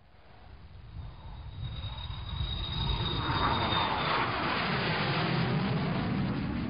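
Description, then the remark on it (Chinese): An airplane roars past, its broad rumbling engine noise swelling over the first few seconds and holding steady with a thin high whine and a swirling, phasing hiss. No one speaks. “后来我就决定了，买了机票之后是七月中旬，啊，我坐了飞机过去的。”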